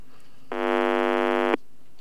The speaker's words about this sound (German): Telefon klingelt.